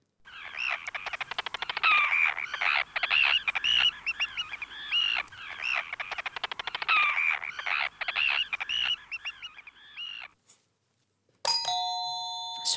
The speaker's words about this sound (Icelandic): Er það kríja? Þetta er kríjan, alveg hár rétt